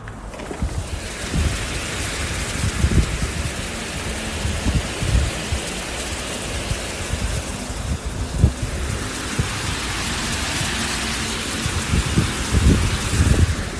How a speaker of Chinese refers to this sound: 我天，这雨也太大了！这样我我哎，我把窗户拉开，你们听听，这雨也太大了。